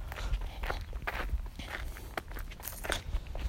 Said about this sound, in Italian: Ma oh, sto camminando filo filo alla strada, se arriva una, non so, qualcosa io salto poco poco più là mi investono.